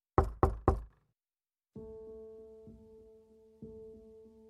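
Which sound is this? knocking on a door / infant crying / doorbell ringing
knocking on a door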